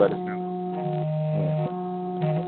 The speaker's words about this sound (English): Sorry, if you heard that through my phone. You heard that through my phone. That's somebody else's phone too. That's my phone. is that? Yeah. You're because we're in the same state. That's an Amber Alert. I just got. It's it. an Amber Alert.